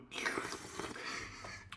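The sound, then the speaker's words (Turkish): A wet slurp of tea drawn from a cup, one continuous airy sip lasting under two seconds with no talking over it. “Oğlum her konuştuğumda diye çay içmesene.”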